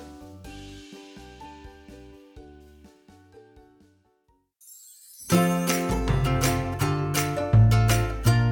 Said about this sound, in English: Oh, I've got an email. I think I know what this one is about. Oh, yes, it's from the Studio Spiders.